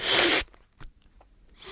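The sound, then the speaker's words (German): A person, out of a small habitual tic, sucks air in through the corner of the mouth in a loud, hissing slurp, followed by a short pause with faint clicks and a second, softer slurp starting at the end. “Und dabei verziehe ich den Mundwinkel und ziehe ziehe die Luft hoch und es schlürft.”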